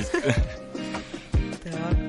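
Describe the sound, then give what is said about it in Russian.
The opening of a rap song plays: sustained chords over a punchy, steady kick-drum beat, fairly loud, with no voices over it. “по первым аккордам уже поняла.”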